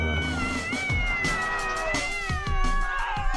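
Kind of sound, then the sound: animal, cat meowing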